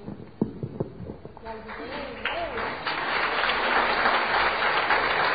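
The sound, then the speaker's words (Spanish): A voice speaks briefly, asking for applause for herself, then applause breaks out. The dense crackle of many hands clapping swells after a couple of seconds and holds steady and loud to the end. “Perfecto, un aplauso para mí.”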